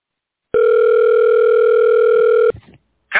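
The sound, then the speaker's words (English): A steady electronic telephone tone hums loudly and evenly for about two seconds, then cuts off into a brief burst of clicking line noise as the call connects; this is what is heard when calling Q's phone number (the Q Continuum). “But for those of you who don't want to do it from your phone, this is what you'll hear if you call Q's phone number.”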